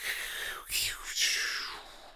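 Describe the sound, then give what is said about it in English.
A voice imitates the sizzle of a turkey lowered slowly into hot deep-fryer oil with a breathy, hissing crackle, two bursts of steady high hiss lasting about two seconds, moderately quiet. “That's not gunfire. It's not fucking Iraq. It's like a sizzle.”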